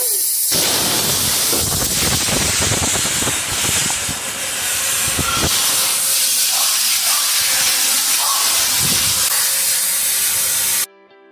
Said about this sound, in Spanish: Ya empezó a chillar la olla. Le voy a bajar la alumbra, que quede suavecita.